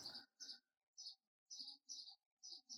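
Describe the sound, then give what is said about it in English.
Birds fighting chirp in quick, agitated bursts, about seven sharp tweets in under three seconds, fairly loud, with brief gaps between each squabbling call and no voices. “Ooh, bird fight.”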